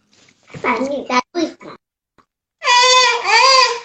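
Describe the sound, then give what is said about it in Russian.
A small child cries and shouts in a few short, broken vocal bursts, then lets out a long, loud, high-pitched wail. “Покажитесь, друзья мои, кто там кричит. Сядь, малыш, и успокойся.”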